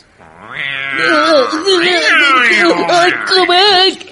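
A black cat yowls loudly, one long drawn-out cry with wavering, sliding pitch that swells and holds for several seconds before cutting off.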